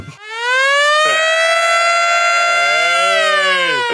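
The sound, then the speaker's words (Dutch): A loud civil defense air-raid siren wails steadily, its tone rising quickly at the start and holding a sustained, slightly wavering pitch before beginning to fall near the end. “Ik weet niet of Heinde, de sirene klaar heeft staan”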